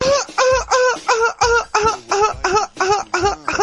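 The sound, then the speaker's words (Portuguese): A person imitates a chicken frightened on spotting a hawk in the yard, letting out a rapid, steady string of about eight loud, squawking clucks, with no talking. “Agora eu vou imitar a galinha quando ela identificou que aquilo que ela estava vendo no quintal era um gavião que a queria levar.”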